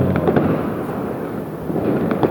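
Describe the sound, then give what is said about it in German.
A continuous hissing, crackling rush of a firework fountain burning steadily as a flame pyramid, with dense sparkling crackle and a few sharper pops near the start and end, loud, with no voices. “Oh Gott, es wird eine Flammenpyramide.”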